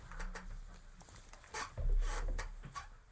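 A chair creaks and scrapes: a string of short, scratchy clicks and rubs, with a heavier, longer scrape partway through, fairly quiet and with no one speaking.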